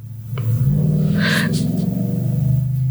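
A car engine revs outside in the city, a deep, steady rumble that climbs in pitch early on and then holds at a loud, sustained drone for a few seconds, with no voices.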